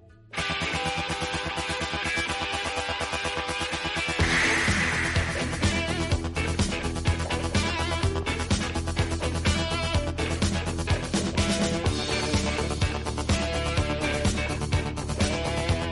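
An upbeat rock song plays loud and continuous after a brief quiet start, with steady driving drums and dense guitar layers that swell fuller a few seconds in.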